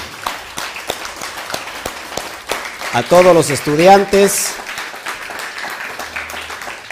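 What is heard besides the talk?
audience applause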